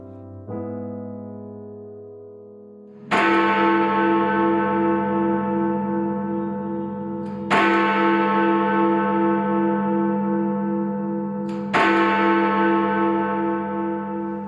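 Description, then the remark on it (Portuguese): Three deep, heavy strikes of the Big Ben clock tower bell in London ring out about four seconds apart, each one booming loudly and humming on in a long resonant decay, with a softer tone sounding before the first. “Essas badaladas do Big Band são um mero efeito decorativo e de sonoplastia deste podcast.”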